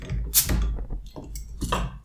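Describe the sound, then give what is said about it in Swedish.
A beer, a Nya Tidens IPA from the northern Swedish microbrewery Pite Bryggeri, being opened: a sharp metallic snap with a quick burst of hiss, followed by a few softer clinks and handling noises, with no one speaking. “ja, vi ska, jag ska öppna min.”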